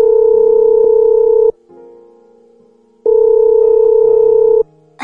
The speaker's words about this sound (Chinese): 期间， 路遥给他打电话，响了几声，他才接起来。